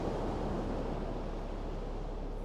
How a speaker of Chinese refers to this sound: 感受大海的拥抱，专心静气地聆听着大海的声音。